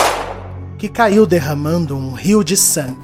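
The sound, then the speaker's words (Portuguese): A single sharp, loud gunshot rings out and its echo fades over half a second, followed by a voice speaking steadily over faint background music. “Mas o rapaz disparou três tiros na mulher”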